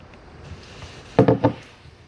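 Someone takes a quick drink of water: three short, soft gulping sounds in rapid succession, heard alone against a quiet background with no talking.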